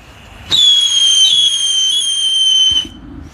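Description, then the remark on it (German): Two "Five" firecrackers set off together at once, doubly loud, letting out a loud, piercing whistle that holds steady for a little over two seconds before cutting off abruptly, with no voices. “doppelt laut insgesamt, wenn man zwei dieser Five-Dinger auf einmal hat.”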